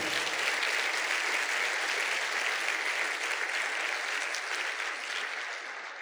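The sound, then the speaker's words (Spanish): An audience bursts into sustained, dense applause, loud and steady throughout with many hands clapping at once, easing slightly toward the end. No one speaks over it. The applause is given to the Lord during a church sermon. “Dale un fuerte aplauso allá al Señor.”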